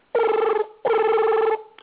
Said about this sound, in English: phone rings.